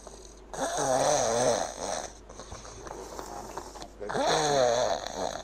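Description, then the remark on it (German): Loud, rattling snores through an open mouth from a tonsil snorer: two long, drawn-out breaths a few seconds apart with a buzzing, fluttering texture, and no talking. “Es gibt übrigens auch noch die Tonsillenschnarcher, also diejenigen, die das über den Mund machen.”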